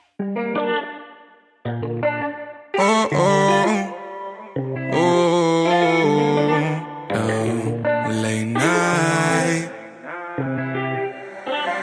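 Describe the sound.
A pop song plays loudly with a sung vocal over full, processed backing instrumentation, broken by a couple of brief drop-outs before the band and singer surge back in.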